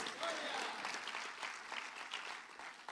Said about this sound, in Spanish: Si usted dice amén, le da palmas al Señor, pues. A su nombre.